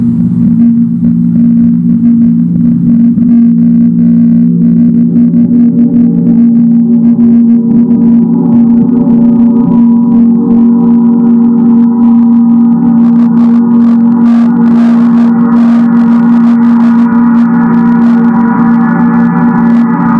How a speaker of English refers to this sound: Just to give you a quick teaching about the gongs, the gongs are incredibly very powerful sacred instruments.